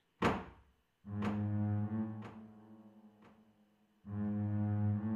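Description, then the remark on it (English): A heavy door slams shut once aboard a ship, echoing through a corridor with a booming decay, followed by a deep, sustained mechanical drone broken by a few sharp knocks. “The quartermaster begins to make their way over to the other side of the ship, when the sound of a door slamming shut echoes through the corridor.”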